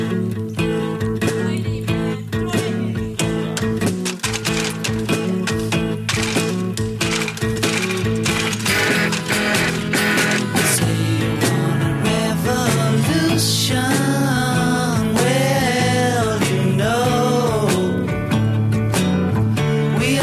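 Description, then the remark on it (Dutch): A song plays at steady, fairly loud volume: the 18th of 18 studio takes, a longer version of the song. A full band mix of driving rhythm, sustained tonal parts and a wavering lead voice or melody line runs throughout. “Maar de 18e, die is eigenlijk een wat langere versie, maar die klinkt ongeveer zo.”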